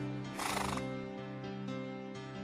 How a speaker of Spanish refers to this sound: eso fue como un caballo sinfónico, un, caballo acústico.